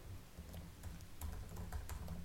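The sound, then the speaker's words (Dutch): Quick, irregular clicks of fingers typing on a laptop keyboard, moderately quiet, with a low steady hum underneath and no one speaking. “Een momentje hoor, mijn laptop is uitgevallen en ik wilde even de titel erbij, of hoe heet het, de uitleg van de serie erbij.”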